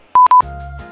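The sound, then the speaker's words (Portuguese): Four quick, bright electronic beeps in a row, followed by the start of a soft, sustained synth chord of elevator music, played during a quick pause, that holds steadily for a moment. No one speaks. “Pausa rápida para aquela música de elevador.”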